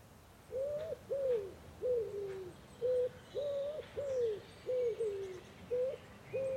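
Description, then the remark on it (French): Wood pigeons coo in a steady run of about nine soft, hooting notes with short gaps between them, against a faint rustling background and no voices. “Eux, ce sont les pigeons ramiers.”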